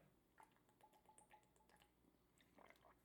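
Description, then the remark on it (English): Quiet, wet mouth sounds of someone taking a swig of water: a few soft gulps and slurps, no talking, ending in a sharp click. “Oh, by the way, hold up. Swig of water for the working man.”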